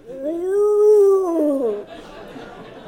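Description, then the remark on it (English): A voice imitates the drawn-out moan of Nick, a dog with acute stomach distress, heard in a car on the trip home to Albert Lea: one sustained, wavering howl-like tone that rises slightly and falls away after nearly two seconds, followed by quiet background. “We departed for Albert Lea on Sunday afternoon and were about one hour into our trip home when we heard Nick, Nick make kind of a moaning sound.”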